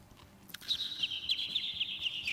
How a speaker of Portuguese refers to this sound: Ah, um passarinho.